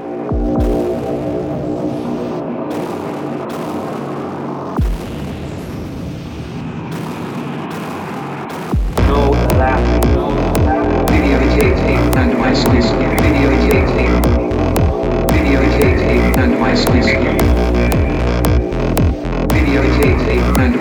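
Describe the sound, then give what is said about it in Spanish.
An electronic music track by a French producer from Paris plays loudly: a low, throbbing synth drone for several seconds, then a dense, driving beat with pounding bass kicks and layered buzzing synths kicks in. “dejando su original estilo, como en el track que suena de …, …”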